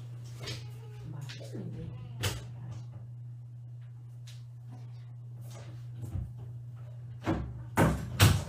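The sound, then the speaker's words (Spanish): A door is shut with a few sharp clunks and rattles near the end, after an earlier single knock, all over a steady low electrical hum. “Me van a ver cerrar la puerta.”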